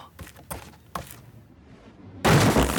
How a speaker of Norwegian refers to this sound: Det braker igjen. Uh. Hæ? Hva skjedde nå? Og nå høres lyden ut som en enorm promp.